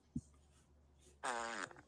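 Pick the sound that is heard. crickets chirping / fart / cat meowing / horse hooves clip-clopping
fart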